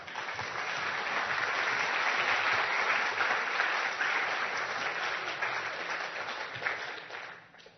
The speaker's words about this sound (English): Um, thank you. M- Mister? Thank you. Can you give him a clap?